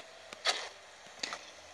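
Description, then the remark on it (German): Video game arrow shots fired at a character: a faint click and a brief airy whoosh ending in a soft impact, heard twice about three-quarters of a second apart, moderately quiet with no talking. “Ich schieß mal auf den.”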